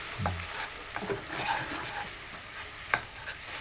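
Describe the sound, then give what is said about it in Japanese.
Milk being added little by little and stirred into a flour roux in a pan over medium heat, with soft scraping strokes and gentle sizzling under a steady background hiss, plus a sharp clink near the end. “で混ぜてるとあのペタッとしたこう重たい状態になるので、完全にだ牛乳が白っぽいところが見えなくなってあソースっぽくルーっぽくなってきたなと思ったらまた牛乳を足しますで入れていく量は徐々に徐々に増やしていくみたいなイメージですね”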